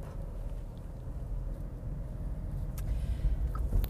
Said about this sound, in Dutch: Hallo! Daar ben ik weer en wederom eh, vanuit de auto, want de auto dat neemt zo lekker op.